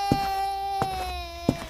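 A young boy cries at dawn in a house, from the second floor, in one long, steady, high-pitched wail that sags slightly in pitch, broken by three sharp catches of breath, with no talking.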